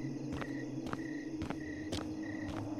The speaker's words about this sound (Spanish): Lo único que me hacía compañía era el ruido de los insectos nocturnos y el sonido de mi propio andar.